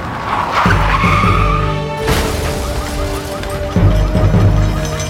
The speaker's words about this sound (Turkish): Gürültünün geldiği yöne baktığımızda bir ekip otosunun park halindeki gri bir araca çarptığını gördük. Darbeyi alan gri araç eğimli yolda yana savruldu. Kayarak usulca üç katlı binanın duvarına çarptı.